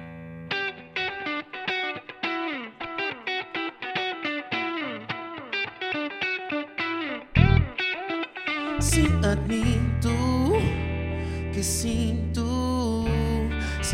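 A band plays live on Rádio Comercial: choppy, effect-laden guitar chords pulse for several seconds, then a brief pause before a loud, full distorted band sound with drums swells in and sustains.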